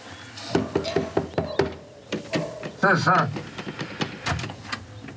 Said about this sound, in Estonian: ja näed, siin ongi kohe õunapeatuses ongi Õuna tänav. ja koputamegi teise maja Äh, uksele.